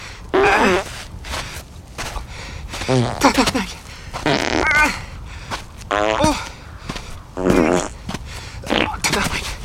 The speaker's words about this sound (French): Je pouvais pas courir. J'étais rendu à, à, un pet à chaque pas.